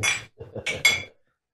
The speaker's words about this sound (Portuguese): Olha lá. Tchim, tchim. Tchim, tchim. Viva. Tchim, tchim, viva. Viva, viva.